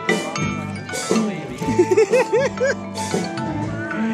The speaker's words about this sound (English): This is the chime you hear when Paul Pate loses his phone.